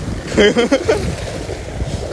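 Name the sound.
waves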